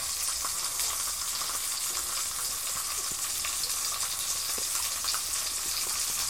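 Steady, crackling sizzle of thick-cut potatoes frying in a frying pan on a portable gas stove, a dense hiss with scattered pops, continuous throughout with no talking.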